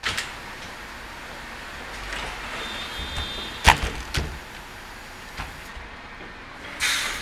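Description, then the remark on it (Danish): A bus rolls in over gravel with a low rumble, with a sharp clunk partway through and bursts of air-brake hiss at the start and end. No one speaks. “Nå, en knasen i gruset afslører. Nu kommer bussen.”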